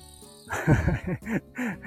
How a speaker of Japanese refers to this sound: セミめっちゃ鳴いてますね。そうなんですよ。まあ、ここら辺は、多分聞こえてくる方向を見ると、森っていうほどじゃないんですけど、林があるんですよね。なので、そっちからですね、多分、セミがめちゃめちゃ